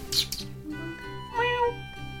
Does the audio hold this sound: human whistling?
no